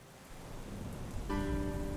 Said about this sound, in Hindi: rain बारिश